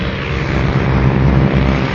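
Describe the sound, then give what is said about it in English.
A Ford Trimotor propeller plane's engines drone in a steady, loud, low rumble with a dense rough buzz, holding constant throughout with no voices present. “That's the Ford Trimotor.”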